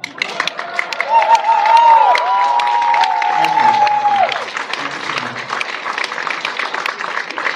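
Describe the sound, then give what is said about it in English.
A concert audience in China claps steadily with scattered cheers for several seconds, a dense crackle of hands that holds loud throughout, while a brief whistle-like tone rises and falls above it early on. “the night is young, so um, we will be happy to play more if you clap really hard.”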